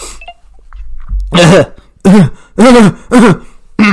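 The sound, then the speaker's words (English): A run of four or five loud, echoing throat clears, each a short voiced rasp with a gruff rising and falling pitch, spaced about half a second apart with no talking. “I've got to clear my throat again.”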